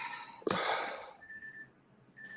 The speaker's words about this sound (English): Oh wait, hold on. I got an alarm going on for some reason.